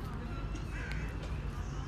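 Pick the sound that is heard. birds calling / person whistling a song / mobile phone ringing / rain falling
birds calling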